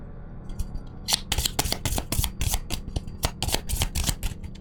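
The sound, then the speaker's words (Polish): Initiative cards for a tabletop role-playing game being shuffled and drawn, a rapid run of crisp riffling snaps and flicks lasting a few seconds, with no one speaking over it. “To rzućmy, to wybierzmy inicjatywę.”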